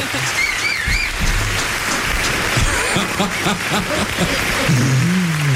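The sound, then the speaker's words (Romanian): A television show studio audience applauds steadily for several seconds, a dense, even patter of many hands clapping, with faint whistles and a brief voice rising near the end. “Încă o dată aplauze, bravo!”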